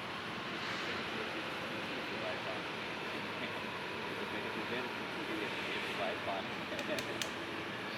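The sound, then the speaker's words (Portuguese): At night, a train rolls past very close on a railway bridge, a loud, steady roaring rumble that fills the whole clip, with brief metallic squeaks and clicks toward the end. “E lá vem o trem. Isso é passar perto.”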